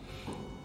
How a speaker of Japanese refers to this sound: あいにく、えー、朝から曇りで、ちょっと雨も降ったり止んだりという感じで、お出かけ日和ではない感じでしたが、お構いなしでですね、街のあちこちから花火が打ち上がっております。ちょっと後ろでバンバンってこれ聞こえますかね